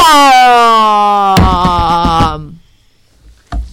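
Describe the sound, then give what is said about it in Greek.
A cartoon-style bomb effect: a high whistle slides steadily downward, then a loud explosive blast bursts out and rumbles and crackles as it fades. A single short thump follows after a pause. The bomb goes off when a bedside lamp is switched on. “Εκείνη την ώρα όμως που γίνεται η έκρηψη φτάνει και στην πόρτα του κάποιος χτυπά.”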